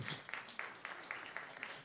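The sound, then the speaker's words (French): An audience in a hall breaks into applause as parents in the crowd clap to answer whether there are parents in the room: a dense wash of many hands clapping at a steady, moderately loud level with sharper claps popping out at regular intervals. No one is speaking over it. “Y a-tu des parents dans la salle? Beaucoup, je pense. À applaudissement.”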